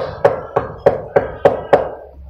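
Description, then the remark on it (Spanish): Six steady knocks on wood, evenly spaced and fairly loud, each with a short hollow ring that fades before the next. No voices, just the knocking on its own. “vamos a ver, vamos a tocar.”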